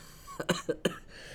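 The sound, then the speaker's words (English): A short fit of coughing: three quick, rough bursts in under half a second, then quiet room tone. No one speaks. “Oh, after you cough, oh, after you cough, Go ahead.”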